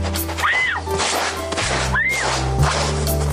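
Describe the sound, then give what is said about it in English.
Loud brush scrubbing with a hard, coarse-bristled brush in rapid back-and-forth strokes, harsh and gritty, punctuated by two rising-and-falling squeaks, with no voices present. “Just apply a dime size amount of Acufresh Ginger Lemon Mint Eye Paste to the brush and scrub away.”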